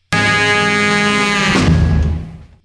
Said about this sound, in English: I love that in the sustain of the last note with the two saxophones, one of them is a little sharp, like as it goes, there's a little like bend down, a half step down, and one of them's not quite caught up with the other one. Listen closely to that